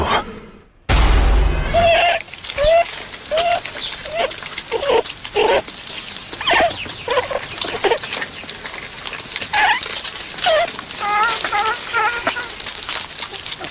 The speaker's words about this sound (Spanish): Estamos escuchando un conejo.